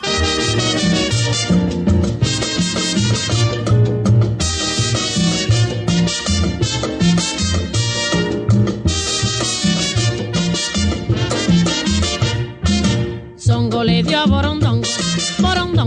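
A salsa recording plays loud and close, with a singer over a full band of horns and percussion driving a steady, danceable rhythm, broken by a brief dip near the end.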